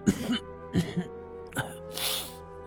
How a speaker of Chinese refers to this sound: 赵村长用手捂着嘴，咳嗽了两声